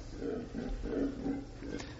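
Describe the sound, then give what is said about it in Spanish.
A howler monkey gives deep, guttural roaring howls in a steady series of pulsing bursts, loud, with no one talking over them. “Un mono aullador.”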